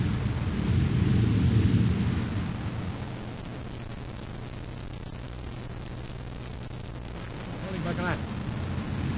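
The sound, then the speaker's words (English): A deep, rolling explosion rumbles loudly for the first few seconds, then subsides into a low steady drone, with a brief voice-like sound rising near the end. “I just saw the explosion.”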